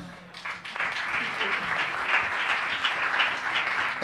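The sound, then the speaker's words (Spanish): An audience of the show Yo Nunca applauds steadily, a dense, even wash of many hands clapping that swells quickly after a brief quiet start and holds at a loud, constant level throughout. “Un aplauso, Arturo.”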